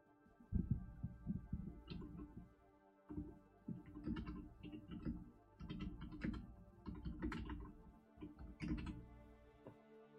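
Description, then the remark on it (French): Rapid keyboard typing of a message in uneven bursts of clicky keystrokes with brief pauses, heard on its own with no talking, the key presses carrying a dull, thumpy low end. “Je lui mets un message.”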